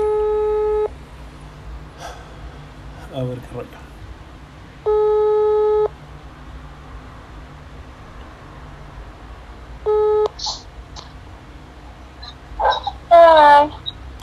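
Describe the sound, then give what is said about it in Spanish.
A cellphone video call to a girl rings out, its steady electronic tone sounding in bursts of about a second that repeat every five seconds, with brief talking and background noise in between. “Ya sé que voy a hacer, vamos a marcarle a una niña que siempre me contesta y que podemos cotorrear mientras yo estoy.”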